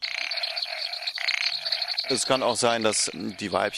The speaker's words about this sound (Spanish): Un ejemplo clásico es la rana brasileña Leptodactylus vastus o rana de motor diésel. Este anfibio mide unos 20 centímetros.